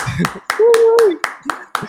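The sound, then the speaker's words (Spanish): Virtual applause welcoming a guest, steady, evenly paced clapping, about eight sharp claps in under two seconds, with a brief sustained vocal cheer rising over the middle of it. “Así que yo quiero que recibamos con un fuerte aplauso virtual a Lisette Selman, que nos acompaña esta, este día.”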